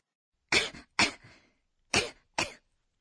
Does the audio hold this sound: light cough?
yes